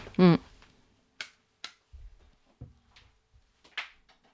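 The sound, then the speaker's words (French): A handful of sharp, dry cracking pops from knee joints, spaced irregularly, after a short loud vocal grunt at the start, with faint rustling between the cracks. “Il faut que tu fasses un truc pour tes genoux.”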